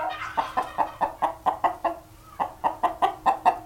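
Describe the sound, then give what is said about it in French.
A steady series of about fifteen short hen clucks in quick rhythm, with a brief pause midway, fairly loud over a low background hum. “Lorsqu'il y a, euh, lorsqu'on emmène de la nourriture, par exemple, euh, il va appeler les poules. Les poules vont se rassembler et lui va, il va pas forcément manger tout de suite.”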